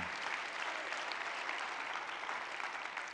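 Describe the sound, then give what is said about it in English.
A large crowd of people applauding steadily, a dense, even wash of many hands clapping at once, sustained and fairly loud throughout with no voices standing out. “Come on, if you're going to clap, put your feet together and clap them.”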